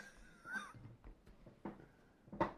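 A door creaks and then shuts with a few soft thuds, ending in a firmer knock. It sounds faint, with no talking.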